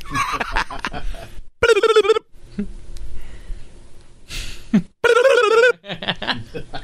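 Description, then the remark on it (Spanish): A telephone rings twice during a prank call, each a short bright warbling burst separated by a pause, with muffled snickering and breathy laughter around the rings. “Ya, dale, llama. ¿Cómo suena?”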